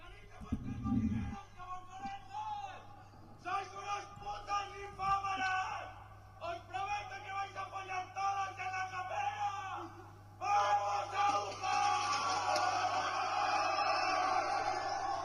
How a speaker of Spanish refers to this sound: Bueno, nada más, como para que tengan una idea, putas eh, salid de vuestras madriguedas, el grito machista, homófobo del Colegio Mayor Elías Aguja, el colegio más elitista, más reconocido de Madrid